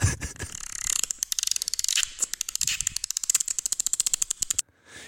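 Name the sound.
voice imitating a dolphin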